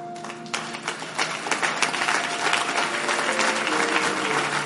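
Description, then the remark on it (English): An audience claps together during a sermon, a dense, steady wash of many hands building slightly and holding loud throughout, with faint sustained keyboard-like tones humming underneath. “Are you clapping or you are doing something like clapping?”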